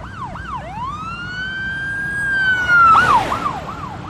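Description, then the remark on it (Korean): A police siren yelps in quick whoops, then swings into a long rising wail that grows louder and drops in pitch as a police car with warning lights on speeds past from behind at full speed on a quiet road near a bridge at dawn, with rushing road noise. “귀의 뒤편에서 경고등을 켠 경찰이 전속력으로 달려 귤을 앞지른다.”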